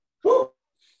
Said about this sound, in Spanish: Ay, otra vez el perro.